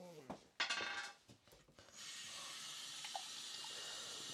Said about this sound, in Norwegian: neste øl, så skal jeg skylle glass.